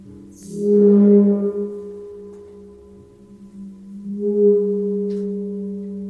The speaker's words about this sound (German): Ein geriebener Gong, wenn man reibt.